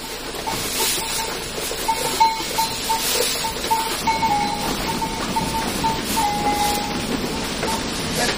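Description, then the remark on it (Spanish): A flock of sheep, heard as a steady, noisy shuffling wash with small bells clinking lightly and irregularly throughout. No one speaks. “estas ovejas de aquí de abajo, ¿dónde tienen algo?”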